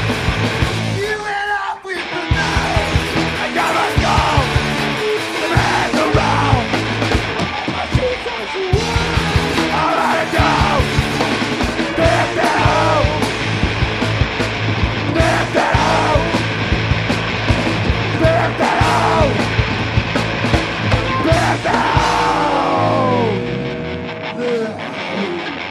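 A loud, fast punk rock song with distorted guitars and pounding drums, a male voice shouting the vocals over the dense, driving wall of sound almost throughout.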